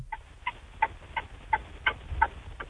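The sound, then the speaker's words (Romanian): Hazard lights of a stopped car ticking in a steady, even rhythm, about eight clicks in under three seconds, clear over a thin, phone-like line with no one talking. “Aud mașina pe avarii, bine că te-ai oprit, acum vreau să te aud și pe tine.”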